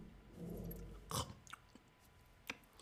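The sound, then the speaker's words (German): Chewing of food while tasting it, with wet, squishy mouth sounds and a few sharper crunchy bites standing out, repeating irregularly over a few seconds with no talking. “schmecken, schmeckt gut”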